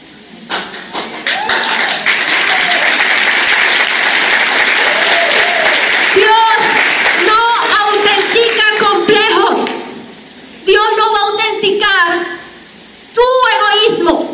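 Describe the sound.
A crowd applauds steadily and loudly for several seconds, the clapping gradually fading as a voice speaks over it, followed by a stretch of talking with brief pauses.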